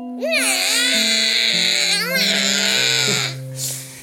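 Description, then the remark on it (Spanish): A newborn baby cries in long, loud, wavering wails that rise and fall, continuous for several seconds before fading briefly, with a low steady tone underneath. “Y él empezó a tener mucho frío y mucho hambre y empezó... A llorar. A llorar mucho.”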